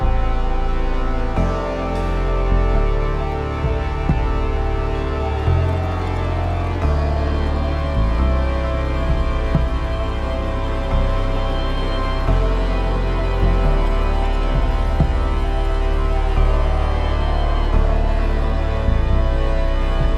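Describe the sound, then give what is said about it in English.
Sustained high strings hover over the reedy, chord-like drone of a sho mouth organ, layered tones holding steadily and shifting slowly throughout, fairly loud with no voices. “Here's an excerpt from Layla's Lament with the high strings echoing the sho and the cries of the Karyobinga.”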